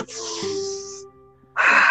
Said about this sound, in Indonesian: bentar bentar tarik nafas dulu